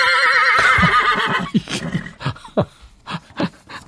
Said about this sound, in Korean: 자, 오늘 보물 소리입니다. 이게 예. 말 울음소리, 일부에 나가는 노래 속에 이 소리를 숨겨놓을 거예요.